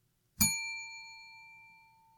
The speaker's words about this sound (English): To help me control my rowdy panel of recidivism reprobates, I will employ what I have called the inappropriate bell.